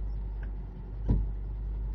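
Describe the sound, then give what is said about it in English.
A large grain truck engine rumbles steadily, a deep continuous drone with one brief thump partway through, and no voices. “And we take this grain truck all the way to Petersburg to sell at the silo.”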